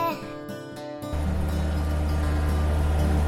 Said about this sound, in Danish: Båden er kommet i vandet, og vi er på vej hjem til Nykøbing over for Forborg. Vi øh, sejler på motor. Der er stort set ikke en vind, der rører sig